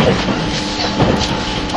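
Steady rumble and hiss of the 651 series Super Hitachi No. 66 express train running on rails from Sendai to Ueno, heard from inside a carriage with faint rhythmic clicks from the wheels, continuous and fairly loud, with no talking.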